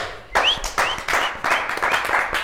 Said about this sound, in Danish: Vi er så fede, at vi klapper os selv.